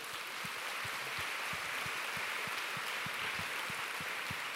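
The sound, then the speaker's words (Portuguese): A church audience applauds: a dense, steady wash of many hands clapping at once, sustained at an even, fairly loud level for several seconds with no voices over it. “Aliás, eu queria que a igreja desse uma salva de palmas para a igreja.”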